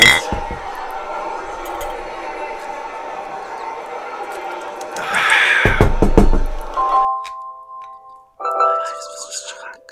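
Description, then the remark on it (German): Glasses clink together in a toast at a bar, a quick cluster of bright knocks over a steady murmur of bar chatter, and a thin ringing tone lingers afterward. “Prost. Prost.”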